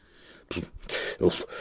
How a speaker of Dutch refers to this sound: Hij kuchte wat en keek weifelachtig.